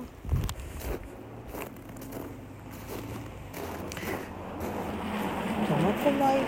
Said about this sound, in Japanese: いやなんか雪を踏む音がすごいですね